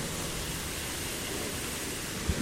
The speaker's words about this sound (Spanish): Ahí está la fuente.